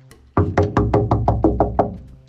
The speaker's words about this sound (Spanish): tocaron la puerta de la casa de Rabbi Jacob.